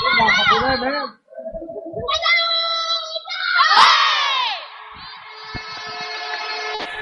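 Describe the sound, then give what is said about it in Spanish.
A women's handball team from Catalonia shouts a loud team war cry in unison before the second half, several rhythmic chanted bursts rising to a final cheer, energetic in an echoing indoor sports hall, the Pabellón Viriato. “Vamos a escuchar el grito de las chicas de Cataluña antes de empezar esta segunda mitad.”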